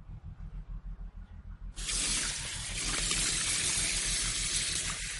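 A low, rhythmic thumping hum plays alone at first, then a tap gushes on with a steady, loud hiss of running water that continues to the end, as if someone is washing their face.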